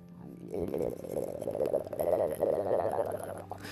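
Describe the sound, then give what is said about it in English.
A voice mimics a gurgling stomach, a wobbling, bubbly drone that swells and warbles for about three seconds with no words spoken. “The gurgle is getting louder.”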